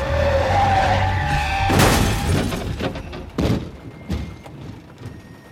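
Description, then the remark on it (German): A getaway car's engine roars, then tires skid hard on a slippery road as it slides out of the curve before the railway underpass past the town exit of Bruckhöhe, followed by a series of heavy thuds and crunching impacts. No one speaks. “Fluchtfahrzeug hat nach Ortsausgang Bruckhöhe Bahnunterführung aus der Kurvendrung.”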